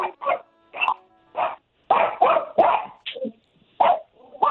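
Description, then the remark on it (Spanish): A dog barks repeatedly in short, sharp bursts, loud, with some higher yipping barks mixed in and brief pauses between volleys, during El Show de Piolín. “Callen al perro, por favor.”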